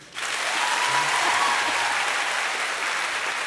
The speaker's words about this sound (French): Par applause, qui pense que c'est Jelly